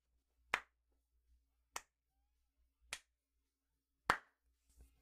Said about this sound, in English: just slow clapping.